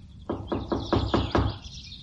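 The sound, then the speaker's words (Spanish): Six firm, evenly spaced knocks by a woman on a house door in quick succession, clear, with faint birdsong chirping in the background. “Llamó a la puerta.”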